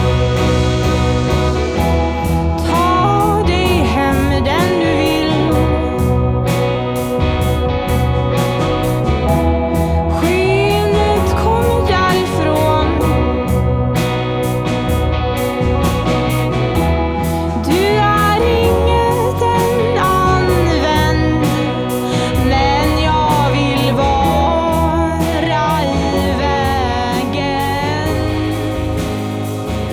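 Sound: music track being played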